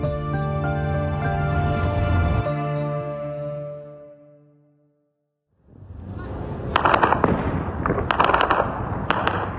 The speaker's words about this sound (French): Dès 8h30, des témoins entendent des échanges de tirs à Khartoum. Nous sommes le samedi 15 avril dans la capitale du Soudan.